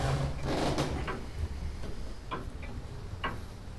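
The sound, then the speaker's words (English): A clock in a dark hall ticks steadily, each tick a sharp click over a low background rumble, with no one speaking. “It's too dark to see the clock face.”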